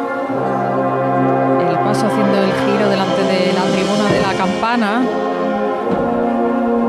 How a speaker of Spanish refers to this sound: La banda ya es la tercera marcha que escuchamos una detrás de otra